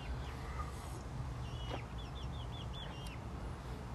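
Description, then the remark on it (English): Chickens cluck in a quick series of short, high calls near the end, with a scattered chirp earlier, all over a steady low outdoor rumble and no talking, as they move around in hot weather. “They're at the chickens right here. They're they're clucking around in the heat and uh, doing their thing.”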